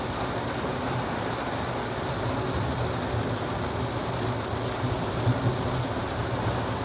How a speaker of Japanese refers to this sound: うわ雨ひどくなってきた